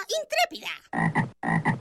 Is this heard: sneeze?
no